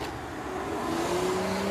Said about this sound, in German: Und richtig aufs Gas gedrückt. Und richtig. Oh, ihr zeigt, was er kann.